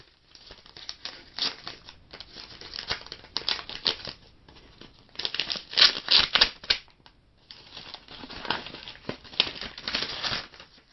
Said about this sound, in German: Und wie ihr zweifelsfrei erkannt haben werdet, handelt es sich um das Öffnen eines Briefumschlages.